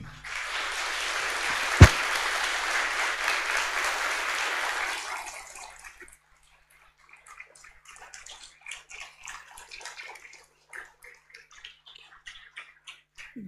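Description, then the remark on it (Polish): An audience applauds Professor Andrzej Dragan in a dense, steady wash of clapping for about five seconds, then it breaks down into scattered, sparse individual claps that trail off with gaps between them. “Profesor Andrzej Dragan, oklaski.”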